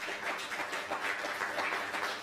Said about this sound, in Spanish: Fuerte aplauso nuevamente, por favor, todas las naciones. Gracias.